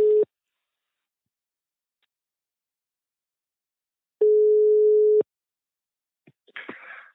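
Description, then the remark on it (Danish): A telephone ringback tone: a steady mid-pitched beep cut short at the start, then after about four seconds of silence one full second-long ring, followed by faint clicks and rustling as the line connects. “fedt du ringer.”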